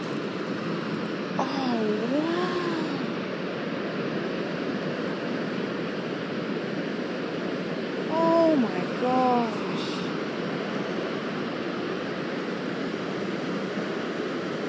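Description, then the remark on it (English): A large waterfall, a river funneled down from the mountains pouring off in one single huge stream that turns from green to white, roars steadily and loudly throughout, a dense unbroken rush of water, with a couple of brief, faint vocal sounds rising over it early on and again near the middle. “we could see this river from up in the mountains, and it's funneled its way down, and it is all pouring off in one single huge fat stream.”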